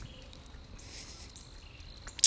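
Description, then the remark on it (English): Faint, high-pitched birds chirping, a thin steady twitter running throughout with one sharper, louder chirp right at the end. No one speaks. “We've got some birds chirping.”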